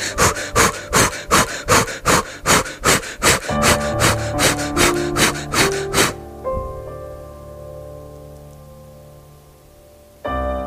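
A quick run of forceful, evenly paced breaths in and out with the arms raised, about a dozen in six seconds, loud, over soft sustained music that lingers after the breathing stops.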